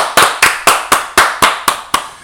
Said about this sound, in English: Um, Can we get that nigga a round of applause? Oh yeah, of course.